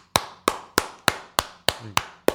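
Eight sharp, loud claps in a steady, even rhythm, roughly three per second, each with a short ringing decay and no voices over them.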